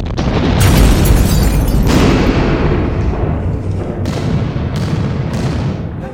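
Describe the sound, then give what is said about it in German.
Explosive plants, set off remotely by a crushed fruit acting as detonator, go off in a rapid series of loud, booming explosions, one blast after another over a continuous heavy rumble, each burst cracking sharply before fading into the next, with no voices. “Dann zerquetschte er die Frucht, die als Fernzünder für die Spätizündi buffbum Knallpflanzen diente, und die Hölle auf Dizien brach los.”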